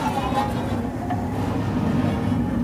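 A robot slides fast down a slime slide, a steady, loud rumbling rush holding an even roar for a few seconds with a faint rattling texture underneath.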